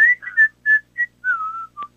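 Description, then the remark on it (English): A person whistles the short, bouncy intro melody of a song, about eight clear notes, mostly quick staccato pitches with one longer sliding tone near the end, fairly loud with no talking. “Uh, we were in the room and I just started whistling that little the little intro like the, yeah.”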